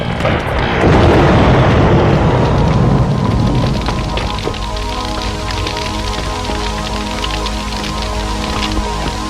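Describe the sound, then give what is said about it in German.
A large blaze of a burning hacienda and barn roars and crackles continuously, opening with a heavy, rumbling whoosh before settling into dense, loud popping and snapping, with no voices. “Die Hacienda und die Scheune standen in hellen Flammen.”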